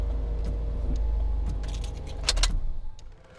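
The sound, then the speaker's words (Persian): A car engine idles with a steady low rumble, then a brief metallic jangle of keys as the motor is switched off, the car stopped outside a police station on double yellow lines at the roadside, and the sound dies away to near quiet. “ماشین رو بیرون در ایستگاه پلیس درست روی دو خط زرد کنار خیابون که مشخص کرده ماشین ها نباید اونجا پارک کنن نگه میداره و اتومبیل رو خاموش میکنه”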